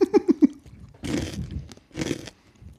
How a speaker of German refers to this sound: Wenn wir hier knuspern und schmatzen und noch was essen und trinken.